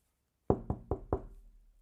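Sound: knocking on a door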